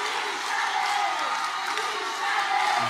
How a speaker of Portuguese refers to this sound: Já tá cortando os fanáticos lá, ó. O pessoal gritando. Que louco.